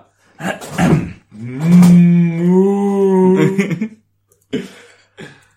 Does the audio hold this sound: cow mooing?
yes